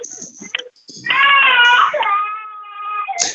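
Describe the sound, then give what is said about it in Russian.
A baby cries in the background, letting out one long, strained wail that holds for about two seconds before tapering off, preceded by brief muffled noises. “Пытают ребенка. Это наши будущие слушатели.”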